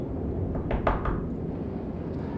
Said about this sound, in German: Ich, egal wie unheimlich und brutal dieses Wesen ausschauen mag, ich muss einfach an die Türe klopfen und das Beste hoffen. Und er klopfte mutig an die Tür.